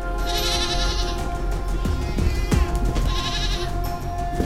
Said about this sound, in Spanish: Escuchó quejidos del chivo y el olor a hierbas y alcohol se mezcló con algo mucho más extraño.